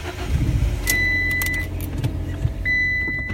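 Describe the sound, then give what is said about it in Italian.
A car engine cranks over and over without catching on a Monday, a low churning rumble with a steady high whine running through it that cuts out briefly before returning. “il mio lunedì e solo il lunedì inizia con la macchina che non parte.”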